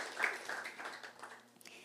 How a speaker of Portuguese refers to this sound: Dê um aplauso aí ao Senhor.